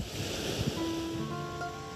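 Ocean waves wash and break steadily on the shore as evening falls, in a continuous broad rush, with a few faint clinks of glasses and hums mixed in. No one speaks.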